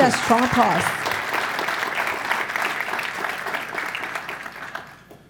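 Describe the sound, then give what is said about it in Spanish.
Loud, sustained applause from a crowd, dense clapping that fades gradually toward the end, with a voice speaking briefly over it at the start. “Él ese fuerte aplauso.”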